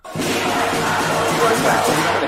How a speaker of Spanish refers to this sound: Se aplaude, qué grande. Voy a bajarme sonidos de aplauso. Pero le puedo poner el del paro nacional.